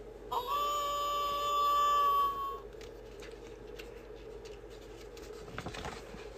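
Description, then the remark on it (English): A single long, steady wolf howl rings out for about two seconds, holding its pitch before sliding slightly down and cutting off, leaving faint rustling background noise. “The wolf howls.”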